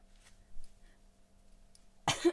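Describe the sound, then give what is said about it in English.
A single sharp cough bursts out near the end after a quiet stretch of faint hum, loud with a rough, breathy tail. “Was that a sneeze? No, that was a cough.”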